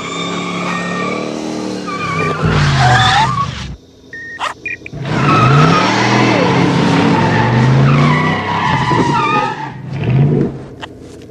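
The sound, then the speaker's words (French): Loud car tires screech and skid in several long bursts while the car's engine revs hard, with a brief pause near the middle before the squealing and roaring resume. “La voiture”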